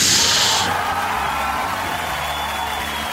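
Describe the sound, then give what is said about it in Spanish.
Steady, dense applause from a crowd with a loud, hissy burst at the start, then a continuous wash of clapping and a few shouts running for about three seconds. “Gracias, muchas gracias por esos aplausos eh, le también a todos.”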